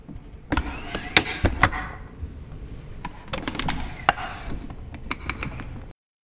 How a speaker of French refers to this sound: Attendez, faut que je retire mon casque.